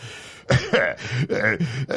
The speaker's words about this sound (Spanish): El fantasma, que no paraba de toser, asintió con desesperación por cien mil pulpos cojos. Tienes tos porque solo comes carne.